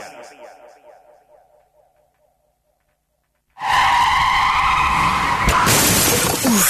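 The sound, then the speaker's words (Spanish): After a faint fading tone and a moment of silence, a car's tires screech loudly in a sustained skid, ending in a sharp crash with shattering impact noise. “vaya golpe, qué disgusto. ¿En dónde voy a arreglar ahora el coche?”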